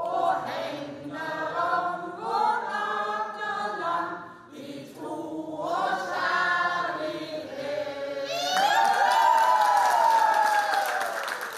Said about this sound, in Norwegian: Det var jubel på nei-vaken i Sola i går kveld, da det ble klart at over 80 av innbyggerne sa nei.